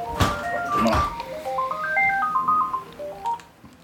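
phone ringing

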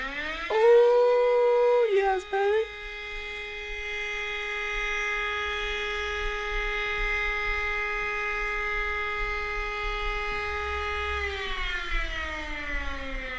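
civil defense siren wailing

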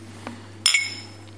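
glasses clinking

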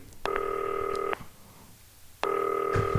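telephone number being dialed

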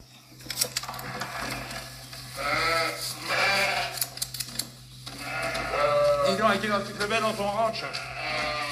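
sheep bleating

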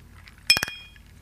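glasses clinking

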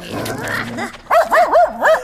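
dog barking

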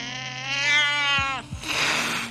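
cats yowling

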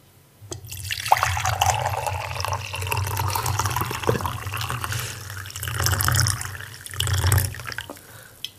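tea being poured

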